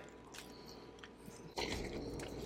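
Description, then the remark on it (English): Someone bites into a Whopper burger and chews, soft squishy mastication sounds followed by a louder, fuller crunching bite partway through, with no talking. “I'm going to bite it again.”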